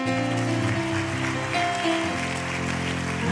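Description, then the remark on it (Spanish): A church audience applauds loudly for Jesus in a steady, dense wash of clapping that lasts throughout, layered over sustained keyboard chords with low, held notes. “Denle un aplauso a Jesús fuerte.”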